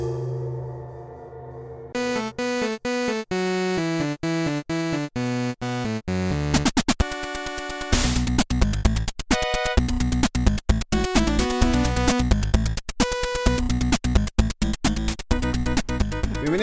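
A rock opera overture: a low sustained drone gives way to quick stepping synth-like notes, then bursts into a loud, dense, driving section with pulsing rhythmic hits. No voices.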